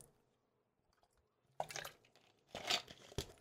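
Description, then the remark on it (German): Sips of water: a quiet pause, then wet slurping and gulping bursts with a short swallow at the end, no talking. “Ich trinke mal noch einen Schluck hier.”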